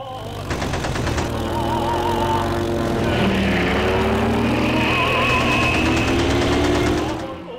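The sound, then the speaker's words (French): A voice imitates a warplane engine, a steady droning roar with wavering pitch that holds loud for several seconds before cutting off. “Avion de guerre.”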